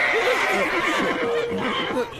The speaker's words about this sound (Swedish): Och en häst! Vem tar en häst på tåget? Den stegrar sig och sparkar.